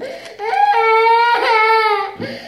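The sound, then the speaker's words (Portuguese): The speaker's baby cries during an audio recording, a sustained, high wailing burst lasting a couple of seconds, fairly loud, with a brief break before the cry resumes and tapers off. “Meus filhos são bênçãos de Deus, eles estão aqui participando do, do áudio aqui.”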